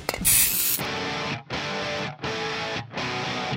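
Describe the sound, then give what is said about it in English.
A quick, loud hiss of an aerosol hairspray can, lasting about half a second, then gives way to chunky distorted rock guitar chords played in three or four repeated bursts. “Grab your hairspray and your sister's makeup and try to fit in those spandex again.”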